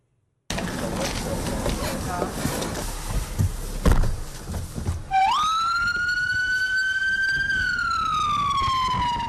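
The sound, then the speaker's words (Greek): A noisy street scene with rumbling traffic gives way to a loud ambulance siren that swoops upward and holds a long, steady wail before starting to drop; the ambulance, from Norway, carries war wounded and refugees from stricken cities to Poland. “Με ένα στενοφόρο μεταφέρει τραυματίε από τι πληττόμενε πόλει στην Πολωνία”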